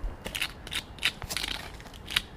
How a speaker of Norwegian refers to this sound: Lyden av en kongle. Nå kasta jeg den.